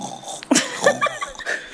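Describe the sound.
Someone imitates snoring with a couple of short, nasal snorting grunts and breathy wheezes, moderately loud and uneven in rhythm, with no words spoken.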